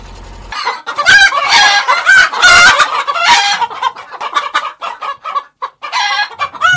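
Chickens cluck busily in a large henhouse, a dense chorus of overlapping calls, with a rooster crowing loudly through the middle before the flock settles into scattered, choppy clucks.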